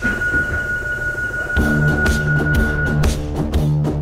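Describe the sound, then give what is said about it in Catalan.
A Rodalies commuter train heading toward Cerdanyola at 11 in the morning on a gloomy, cloud-covered day: a steady mechanical hum, then a louder rumble with rhythmic clacking of wheels over rail joints, continuous, with no voices. “algú ha entrat al tren”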